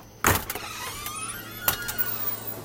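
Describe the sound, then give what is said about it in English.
A front door being unlocked loudly: a sharp mechanical clunk, a whirring, grinding hum, then a second heavy clack, with no one talking. “Just like, sorry, my front door is like really loud and I'm about to unlock it.”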